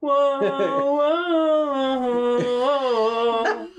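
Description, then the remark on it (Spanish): The speaker's angry dog whimpers in one long, unbroken whining cry, loud, its pitch wavering up and down with a few sharp yelps mixed in, rather than distinct barks. “Dice mi perro. ¡Wow, wow, wow! ¡Sí está enojado!”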